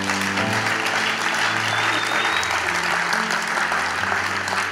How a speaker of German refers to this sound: Nochmal euer Applaus.